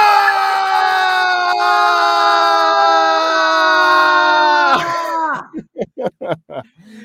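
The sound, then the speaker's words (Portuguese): A voice imitates Goku's anime energy-blast battle scream, a Kamehameha, as a loud, strained yell held steady for nearly five seconds before breaking into a string of short, gasping bursts. “Eu eu tô meio sem voz para fazer o Goku. O Goku grita muito.”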